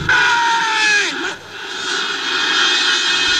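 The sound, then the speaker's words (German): A large stadium crowd at the Volksparkstadion roars and cheers without letup right after the final whistle, loud and dense, with shrill whoops cutting through and one high whistle-like cry sliding downward partway through, as Toni Schumacher and his teammates celebrate. “Schlusspfiff da im Volksparkstadion und äh, hör mal dieses Gejuchze und das Gejohle.”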